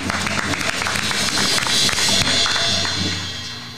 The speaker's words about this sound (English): Let's get a hand clap for that.